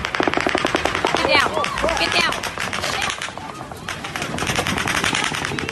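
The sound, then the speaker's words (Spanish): Rapid bursts of gunfire from several weapons, said to sound like two, which police say were used, dense repeated cracks with differing textures overlapping, loud and continuous, with brief shouting voices mixed in. “Puede ser porque la policía dice eso, que utilizó varias armas.”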